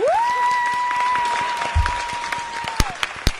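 A sustained high-pitched cry holds steady for about three seconds, then drops off, while scattered hand claps pop underneath and grow sharper toward the end: a radio applause sound effect welcoming a guest to the studio. There is no speech.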